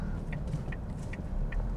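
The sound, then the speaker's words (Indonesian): A city bus on route 6N passes in front, rumbling with a heavy, steady low-frequency engine drone, while a faint high chirp repeats at a quick, regular pace. “ini baru depan lewat depan gue nih bis 6N”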